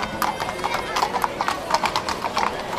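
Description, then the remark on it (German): The hooves of four horses pulling a chariot clip-clop in a quick, steady rhythm on a hard surface, continuous throughout, with sharp bright clacks overlapping one another. “Dort steigt ein schwer bewaffneter Mann, ein Hoplid, zu seinem Wagenlenker in einen Wagen, der von vier Pferden gezogen wird.”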